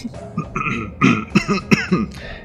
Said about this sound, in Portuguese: De novo, daquela tossida lá no fundo.